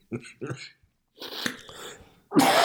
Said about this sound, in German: Was ist los? Ach, Warum hustest du und trotzt unseren lieben Bros und Sis äh, äh. in die, in die Ohren?